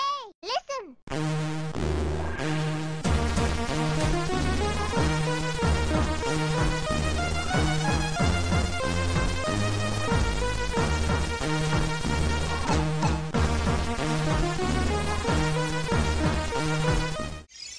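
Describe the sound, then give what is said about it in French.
Commodore 64 SID chip game music plays on its own, with a buzzy, pulsing bass line under bright, busy synth melodies. The steady tune runs loud and continuous. “Moi, je prends toujours mon pied à écouter du repubard et la musique de Nemesis Warlock”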